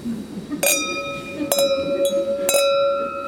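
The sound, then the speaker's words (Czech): Several glasses clink together in a toast, bright ringing tings at irregular moments with tones lingering between strikes, over a low murmur of voices. “Tak vítáme a na zdraví.”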